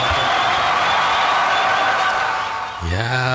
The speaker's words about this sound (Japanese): 拍手が、拍手が鳴りやみません。